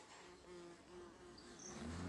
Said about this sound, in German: Oh, jetzt ist gerade ein bisschen laut. Unsere Nachbarn mähen irgendwie die, Ra äh, die Wiese oder so.